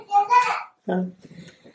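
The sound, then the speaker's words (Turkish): A baby babbles in two short bursts of high, sing-song vocal sounds, the second followed by softer trailing murmurs. “Ya da geldin, bebek geldi ne böyle bir sevgi bakışları.”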